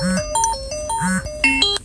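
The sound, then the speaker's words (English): An alarm going off: a loud electronic tone pattern that steps between low and high pitches and repeats about twice a second, with bright harmonic beeps throughout. “You hear the alarm going off?”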